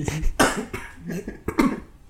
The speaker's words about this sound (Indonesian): Duh batuk